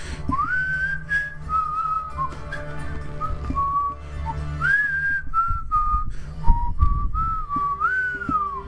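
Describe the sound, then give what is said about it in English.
A person whistles a wandering, tuneful melody, imitating someone else's whistling, with a low steady hum and a few soft bumps underneath. “I heard someone whistling yesterday on New Year's Eve, and it was 6 p.m.”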